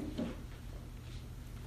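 A door swings shut with a single soft, brief thud near the start, fairly quiet, followed by low hum.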